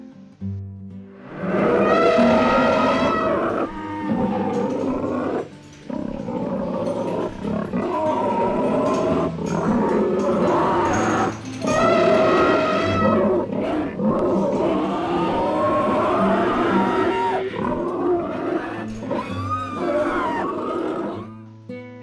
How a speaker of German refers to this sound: Um sie herum ist ein riesiges Getöse. Die Stimmen aller möglichen Tiere sind zu hören und das Stampfen der großen Tiere kann man richtig spüren.